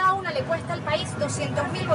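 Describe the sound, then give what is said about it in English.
Inside a crowded city bus with over 50 people aboard as it pulls away, a steady engine rumble sits under a constant murmur of overlapping passenger voices, with one person standing in the aisle at the front of the bus prominently reading a newscast aloud. “After the bus finally fills up, it takes off and the broadcast continues in full force.”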